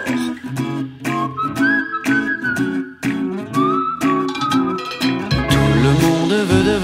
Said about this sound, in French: courte pause musicale